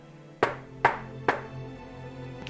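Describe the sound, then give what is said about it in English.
Three evenly spaced knocks on a door, sharp, followed by quiet with a low steady hum in the background. “a knock”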